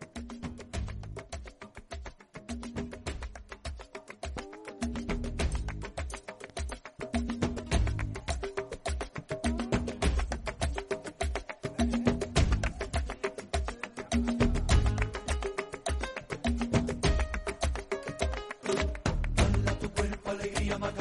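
An upbeat 1993 Spanish pop dance song plays on its own for about twenty seconds, with a steady, driving beat and a full, bright mix at consistent loudness and no talking over it.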